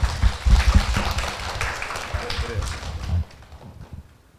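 A crowd claps together in a dense, steady burst of applause for about three seconds, then the clapping thins out and fades to quiet.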